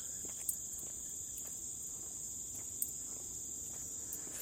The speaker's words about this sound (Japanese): ちょっと今、歩き始めました。虫の声がね、こう、たくさん聞こえるところにね、こう、やってきております。